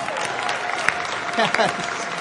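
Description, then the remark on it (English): Dense, steady crackle of applause from an audience for a guitar choir at a morning service, filling the whole stretch, with a few scattered voices and cheers rising briefly through the clapping. “Let's hear it for our guitar choir this morning.”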